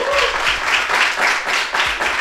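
An audience at a live show at Club Cultural Charco applauds on request so that it is recorded: a steady, dense wash of many hands clapping with faint cheers mixed in, holding a fairly even loudness throughout the short burst.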